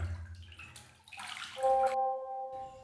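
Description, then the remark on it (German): Water sloshing and splashing in a bathtub as a person sits in it, a few irregular swishes followed by a brief squeaky tone, then a moment of quiet. “Hallo, ich bin in der Badewanne.”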